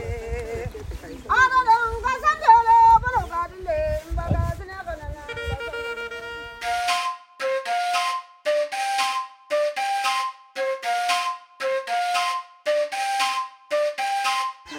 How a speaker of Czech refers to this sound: A máme tu štěstí, protože právě probíhá tanec se zpěvem, který je zasvěcený jejich bohům a děkují za úrodu a bohatost, kterou jim dává řeka Omo.